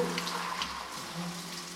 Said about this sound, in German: Das Wasser soll also drucklos fließen das heißt nicht furchtbar viel rumspritzen, sondern wir versuchen eine Wasserplatte zu erzeugen, die den Körperteil, der gerade behandelt wird, mantelförmig umschließt.